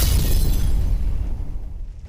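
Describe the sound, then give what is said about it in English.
A loud gunshot bang from a gun, already at full force, rolls into a heavy low rumble that gradually fades over about two seconds as the crackly high end drops away. No voices. “And just like that, her head mysteriously exploded after a loud bang from the equality stick.”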